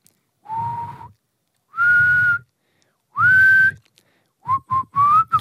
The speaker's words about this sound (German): Hast du gerade versucht zu pfeifen?